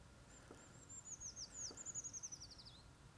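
A Eurasian treecreeper gives a thin, very high-pitched run of notes that wavers and then tumbles downward at the end. It is fairly faint, with no other sounds around it.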